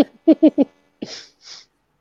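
Three quick gasping catches build up to a single sharp sneeze, followed by a breathy, hissing exhale. No talking, just the sneeze on its own.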